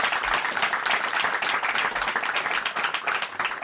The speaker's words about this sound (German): Nochmal einen Applaus für Sie. Danke, dass Sie hier heute hergekommen haben.